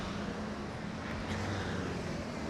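Steady low rumble of a gridlocked traffic jam, a kilometres-long queue of idling vehicles including trucks and shuttle vans at a road junction, a dense continuous engine drone with faint hum, moderately loud and unbroken throughout, no distinct passes or horns.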